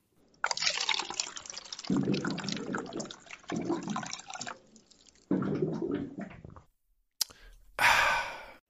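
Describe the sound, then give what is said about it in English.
Water is poured in several splashing bursts during a water break, followed by a short pause and a breathy exhale like an after-drink sigh, with no talking. “For those of you who can't see what's happening, we're taking a water break.”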